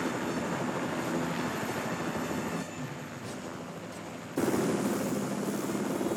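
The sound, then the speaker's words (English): A loud, continuous helicopter rotor and engine roar with a dense, churning texture. It dips briefly partway through, then surges back louder, with no voices. “You can't hold down a helicopter.”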